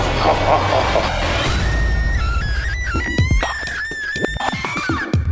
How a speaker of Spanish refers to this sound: Ese grito espeluznante.